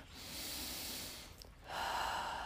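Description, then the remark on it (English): A single deep breath, drawn in with a long airy rush, a brief pause, then let out in a steady exhale. No one speaks. “Take a deep breath.”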